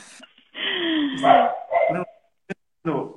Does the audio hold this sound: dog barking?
yes